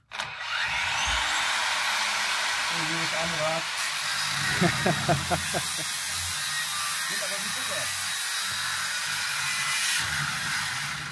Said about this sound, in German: So, das ist eine Flex mit einer sehr dünnen Trennscheibe. Los geht's.